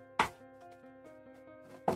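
Someone rummaging around to find a box of dice: two sharp, loud knocks about two seconds apart, with faint clicks and shuffling of objects between them. No one speaks.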